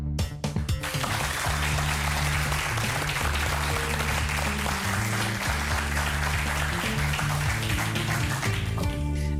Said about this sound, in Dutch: Mag ik een groot applaus voor de uitspraak van meester Frank Visser?